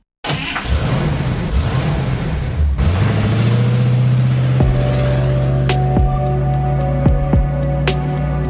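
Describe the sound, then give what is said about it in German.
A short intro jingle built around a loud car engine revving and roaring, with a steady humming drone, sharp clicks and sweeping accents layered on top. No one speaks. “Hier kommt jetzt noch kurz das Intro und dann geht's weiter mit dem legendären AMG Hammer und dem noch viel legendäreren Erhard Melcher.”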